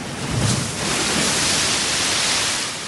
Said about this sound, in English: The reason was that a great cold salt splash had broken right out of the frame.